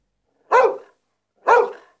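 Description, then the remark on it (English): The dog Nana barks twice in a nursery while shutting the window, a loud woof followed by another about a second later, each bark sharp at onset and trailing off quickly, with silence around them. “Nana barks and shuts the window quickly.”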